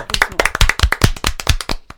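A burst of quick, loud hand claps from a small group, the sharp claps overlapping in an uneven rapid rhythm for about two seconds before tapering off.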